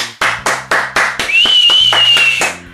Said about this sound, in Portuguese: Vou aplaudir de longe, ó.